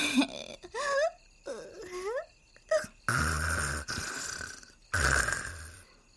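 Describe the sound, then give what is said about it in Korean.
An older sister's wordless sleep-talk mumbles and moans, wavering up and down in pitch and growing louder, give way to two long, loud, rasping snores with a rough, rattling low end. “언니의 잠꼬대와 코고는 소리가 점점 커졌다.”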